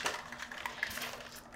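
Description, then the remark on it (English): Ice rattles rapidly inside a cocktail shaker holding a drink with prosecco, a dense, continuous clatter of bright clinks and scrapes that keeps an even, busy rhythm throughout, with no voices over it. “Okay, I'm gonna put this on. And shake, shake, shake, shake, shake, shake, shake, shake”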